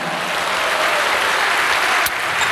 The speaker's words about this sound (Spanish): ¿Cuánto le dan un aplauso a Cristo, amado hermano?